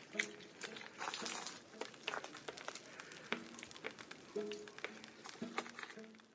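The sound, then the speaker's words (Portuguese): The house of Indigenous activist Maria Leusa in Pará, Brazil, set on fire and burning, crackling and popping in dense, irregular bursts of sharp snaps, a steady rough hiss underneath, with occasional muffled voices rising over the burning. “Esse é o som do vídeo da casa da Maria Leusa pegando fogo.”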